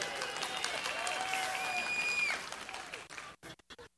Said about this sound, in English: She gets a bigger hand. Did y'all notice that?